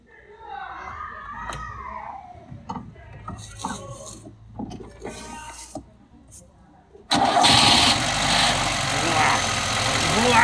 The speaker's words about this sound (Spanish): ¿Arrancará el coche? Más vale. A ver, pues.